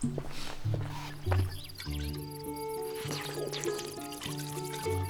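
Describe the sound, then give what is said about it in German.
Water is poured in short splashy bursts, moderately loud, over a soft sustained musical backdrop; no one speaks. “Wasser! Sofort.”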